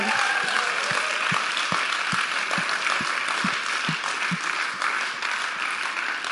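A crowd applauds steadily, a dense wash of many hands clapping at a loud, even level for several seconds, with no one speaking over it.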